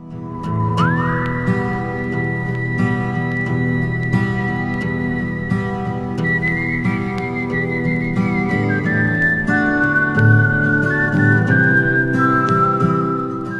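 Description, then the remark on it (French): A clear whistled melody from a whistled piece dating from 1972 carries over steady instrumental accompaniment, with sustained, gliding notes that rise and shift pitch in a flowing tune, prominent throughout. “je vous fais écouter celle sifflée par …”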